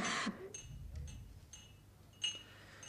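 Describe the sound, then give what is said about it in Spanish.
Light, ringing clinks of a wine glass being served sound several times at uneven intervals, with a brighter clink near the end, over a quiet background murmur. “yo también merezco que se me ofrezca un brindis. ¿Es eso posible, Pepita?”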